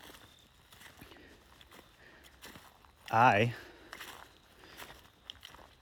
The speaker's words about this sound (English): But what's interesting is the noise, first of all. Second of all, like the noise is in like my crunchy feet. If you can even hear that, you probably can.